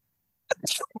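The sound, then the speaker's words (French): A single sharp sneeze bursts out, a quick intake followed by a loud hissing release and a short trailing catch, with silence before it. “Excusez-moi. Et, mon Dieu, c'est la saison.”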